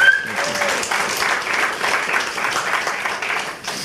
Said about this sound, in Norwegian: Can we, can we give this brother a hand? He did fantastic. Men vi må gi en applaus til låtsangeren.